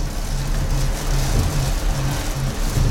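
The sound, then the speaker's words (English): Steady, dense sheets of rain pelt the bridge window of the ship Skiron in a storm as it crosses the Atlantic, a continuous hissing wash over a deep, rumbling engine drone with a low wavering hum. No one speaks. “Sheets of rain hit the window of the bridge.”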